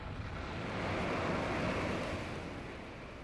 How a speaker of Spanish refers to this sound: Oyó cómo cantaban el agua y el viento